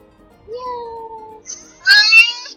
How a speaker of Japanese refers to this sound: 猫だね。I can see the cat だって。